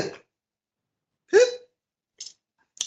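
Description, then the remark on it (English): Choppy Skype call audio breaks up into a few short, clipped fragments of voice-like sound separated by dead silence, with abrupt cutoffs and brief thin blips near the end. “Um, Skype has been uh, hiccuping. Hiccuping for weeks now.”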